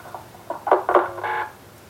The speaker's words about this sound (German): Damit war der Anruf zu Ende und jetzt legt der Hermann auch auf